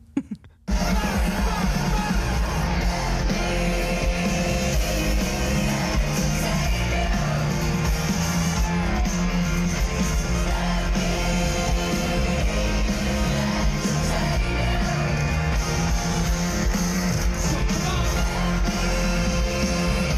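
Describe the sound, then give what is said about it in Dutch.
Loud live concert recording from England, at the very start of the show: a dense, continuous wall of amplified music and roaring crowd, with shouts and the singer's amplified voice addressing the crowd blended into the mix, kicking in abruptly after a brief quiet start. “Ik heb een klein stukje uit Engeland meegenomen.”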